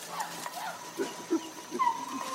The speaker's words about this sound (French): des cris de communication et de contact entre les, colobes